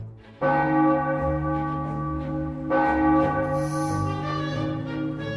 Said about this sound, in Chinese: 他们匆匆通过小镇后，远方教堂传来两声钟响。